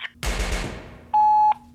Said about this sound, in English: Uh, oh. oh shit! Yeah, uh, they're shooting at us. So, uh, oh fuck.